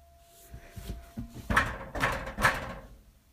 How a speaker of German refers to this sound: Ja, das ist die Heizung.